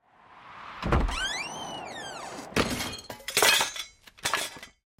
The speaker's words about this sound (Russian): В этот момент от сильного порыва ветра с полки упала эмалированная чаша, свадебный подарок Кёнщим.